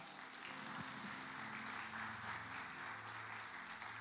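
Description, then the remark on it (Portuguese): An audience applauds four people together, a dense, steady wash of many hands clapping that holds at an even loudness for several seconds, with a faint low hum of voices or music underneath. “Vamos aplaudir esses quatro aqui?”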